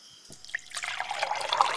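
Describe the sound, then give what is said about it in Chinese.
Tea being poured into a cup: a few light drips, then a steady trickling stream that builds and grows brighter as the cup fills, with no voices. “来来来，请用茶啦。”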